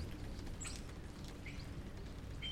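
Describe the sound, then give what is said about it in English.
A few scattered bird chirps and short calls of differing pitch ring out over a steady, dense background rumble of the harbor, not very loud, with no one speaking. “For example, you can now hear the ubiquitous sound of rain in Vancouver, a distant train siren, various bird songs the rumble of the harbor, and the infamous nine o'clock gun.”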